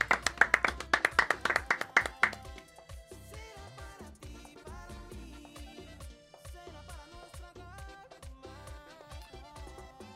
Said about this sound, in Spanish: Y felicitar a los muchachos. Un aplauso para ellos, de verdad que sí.